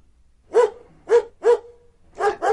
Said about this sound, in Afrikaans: Jama hardloop om die boom en blaf vir 'n groot hoop blare.